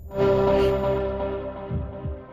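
A deep, sustained synth chord over rumbling bass opens an electronic dance track, with a few soft low thumps near the end. The music plays loudly and alone, with no voices.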